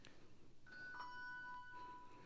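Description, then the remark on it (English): A handbell rings with clear, sustained tones that hang briefly before being cut short as the bell is damped against a table, a handbell technique called table damping. Quiet, with no talking. “Table damping is you just ring the bell and it's a way to stop the sound.”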